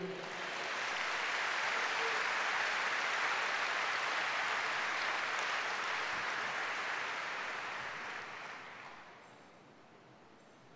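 A church audience breaks into sustained applause to the Lamb, a dense wash of many hands clapping at steady loudness for about nine seconds before tapering off near the end.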